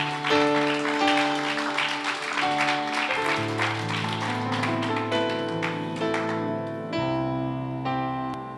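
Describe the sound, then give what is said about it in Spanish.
A crowd claps steadily as applause for God over sustained keyboard chords, the applause strongest early on and fading as the music continues on its own. No one speaks. “Si tú le das un aplauso a Dios, yo le puedo dar un poquito de agua, un poquito.”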